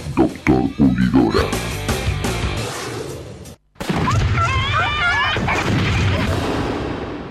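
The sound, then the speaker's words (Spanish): A rapid barrage of loud fireworks booms and crackling bangs that cuts off abruptly. After a brief silence, softer warbling, whistling tones take over. “En estas fiestas, Pirotecnia Cero, municipio de Morón, corazón del oeste.”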